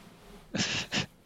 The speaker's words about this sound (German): Ich habe doch gerade schon das geschrien. Das war kein Schrei, das war ein Quietschen.